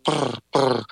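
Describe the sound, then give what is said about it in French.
A soft, rolling purr-like call, a person imitating the purr of wild turkeys, the sound turkeys make while feeding, in two close bursts followed by a short fainter one, rough and vibrating with no speech. “c'est le son que vont émettre les dindons quand ils sont en train de se nourrir.”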